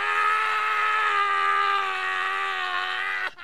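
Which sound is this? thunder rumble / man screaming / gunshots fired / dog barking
man screaming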